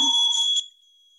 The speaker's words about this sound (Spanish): Y bueno, pues ya va a tocar una campanita